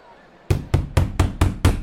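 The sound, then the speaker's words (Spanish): Six loud, evenly spaced knocks on a door in quick succession, each a sharp thud with a deep resonant body, after a brief quiet moment. “Edwin, abre la puerta. Jennifer, abran. No responde.”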